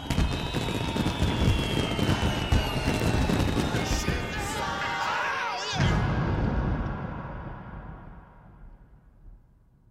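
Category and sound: sound effect, fireworks exploding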